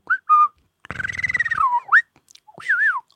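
Dolphin signature whistles, each dolphin's own individual whistle by which they know one another: a series of clear, sweeping tonal chirps that rise and fall in pitch, one riding over a buzzing pulsed burst, fairly loud with no talking.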